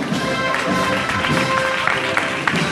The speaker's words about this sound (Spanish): Este es el aplauso de nuevo que celebra, que festeja el roneo de la Virgen de las Angustias, escuchando la cuadrilla, su cuadrilla, la marcha de esta manera, eh, tan flamenca, eh, tan gitana, andando de frente, por derecho